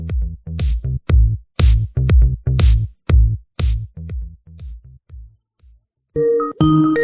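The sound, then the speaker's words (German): A phone call ringtone plays a quick, repeating melodic pattern of bright chiming notes, loud at first and then fading, before a short burst of electronic tones cuts in at the end. “Es klingelt schon.”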